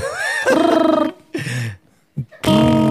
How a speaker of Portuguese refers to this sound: tipo … agora, né? Sim. Fazendo, fazendo peido ser instrumento.